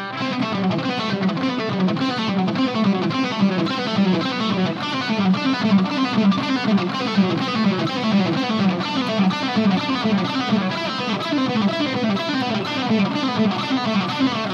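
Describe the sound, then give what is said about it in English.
A distorted electric guitar plays a fast, steady run of legato notes, hammer-ons and pull-offs in a repeating finger pattern as an exercise for finger strength and dexterity, loud and continuous with no voices. “And again, you could use those as hammer ons or whatever you want, but an exercise like that is really great for developing strength in your fingers, dexterity in your fingers”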